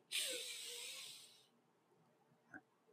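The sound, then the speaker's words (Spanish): A long, steady, airy inhale through the nose, the four-count inhale of 4-7-8 breathing, lasts over a second and is fairly loud, then trails into quiet with a faint small click near the end. No one speaks. “si algo les puedo recomendar es la respiración 478, que está sencilla. Es inhalar en 4”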